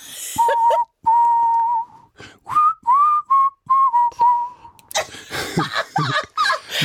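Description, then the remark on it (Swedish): A person whistles a short, halting tune of clear separate notes, some held and some quickly sliding, before the whistling gives way to a burst of breathy, rustling noise. “Du, jag, jag kan ju inte ens vissla.”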